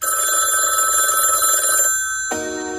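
A telephone rings loudly in a luxurious hotel room in Paris just after midnight, a steady trilling tone that breaks off for a moment and then starts again. No one speaks.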